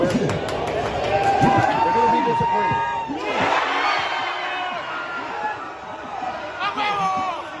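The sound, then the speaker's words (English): A dense crowd of sports fans shouts and roars continuously, many voices overlapping in loud, excited yelling that swells and surges throughout. “Watch the fans. You're gonna hear a soft voice right now.”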